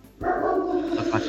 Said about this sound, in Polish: a teraz słychać e, szczekającego Gogusia. Mm, ale zaraz się uspokoi.